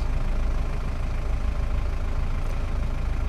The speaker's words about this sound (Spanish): El carro rueda y nuevamente rueda con tristeza. Las llantas giran del punto A al punto B